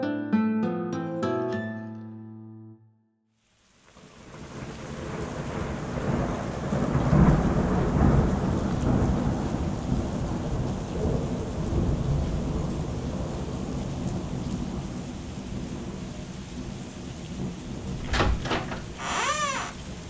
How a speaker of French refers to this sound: On dirait que la pluie ne vous laissera pas en paix pour ce soir.